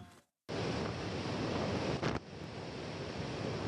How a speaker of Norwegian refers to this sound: Dette er lyden av mat som slippes fra stor høyde og ned til beleirede Deir ez-Zor i Syria. Det må slippes slik for at flyene skal unngå å bli beskutt av IS som beleirer byen og dets mange innbyggere.